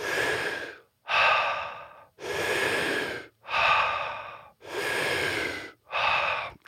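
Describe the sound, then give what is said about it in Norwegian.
Loud breathing in a steady connected cycle of circular breathing, active inhale and passive exhale, about six breaths in a row with almost no pause between inhale and exhale. The airy, rushing breaths follow an even rhythm, with no talking. “Så vi skal puste i en sirkel, sånn, så det er liksom innpust aktivt.”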